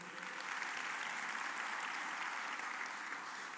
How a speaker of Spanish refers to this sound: Un aplauso, por favor.